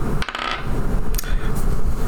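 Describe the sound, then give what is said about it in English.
Dice rattle and clatter across a hard tabletop in a few sharp clicks, rolled for an insight check, tumbling briefly before settling on a 2, with no voices over them. “That's a 2 on the dice.”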